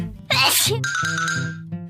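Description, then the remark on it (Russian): A single loud sneeze bursts out, sharp and breathy, then trails into a sustained, ringing tonal tail for more than a second, with no talking. “А еще, если мы чихаем, то обязательно моргнем.”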